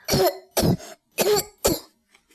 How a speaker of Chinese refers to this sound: 眼前的景象让所有人都大吃一惊：数百只螃蟹和龙虾正用无比缓慢的速度移动着，还不停地发出咳嗽声。